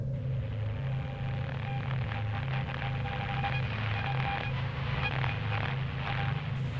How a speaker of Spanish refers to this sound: Pero del otro lado de la línea, solo escuchó una estática muy extraña una especie de zumbido que la hizo colgar.